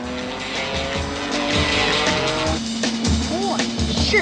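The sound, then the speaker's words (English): A car speeds down the road, its engine roaring and revving loudly for the whole stretch, with tires squealing briefly toward the end. “And right on cue, the kids come flying down the road after them.”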